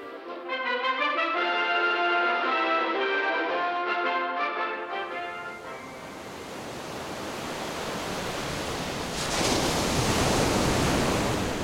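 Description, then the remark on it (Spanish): A few seconds of tonal music give way to the steady rush of Indian Ocean surf, with a louder wave surging and breaking near the end. “el Océano Índico.”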